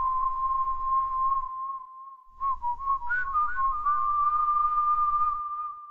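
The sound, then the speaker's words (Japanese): Someone whistles a tune: a long steady note that briefly fades, then a wavering, bending melody with a few quick flourishes, over a low background rumble. “この口笛は”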